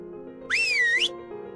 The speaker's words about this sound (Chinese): 酷帅先生说着，吹响了口哨。